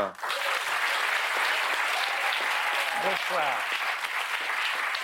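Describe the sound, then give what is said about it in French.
Sustained applause from a large audience for the jury of the reading-aloud programme Si on lisait à voix haute, a dense steady clatter of clapping that fills the whole clip at an even loudness, with a voice briefly audible beneath it. “Mais d'abord, je vous demande d'applaudir celles et ceux qui cette année composent le jury de Si on lisait à voix haute.”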